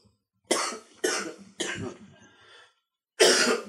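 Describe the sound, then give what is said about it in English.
Someone coughs hard three times in quick succession, then after a short pause gives one more harsh, throaty cough, clearing something stuck in their throat. No talking. “sorry something something's stuck in my throat”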